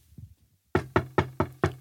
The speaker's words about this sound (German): Und plötzlich klopfte es an der Tür.